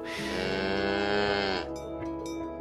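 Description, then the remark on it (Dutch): A single long, loud cow moo, resonant, holding steady for over a second before cutting off into quieter background sound. “Ja, ik hoop echt dat boer Jacob nog jarenlang plezier heeft gehad van zijn koe.”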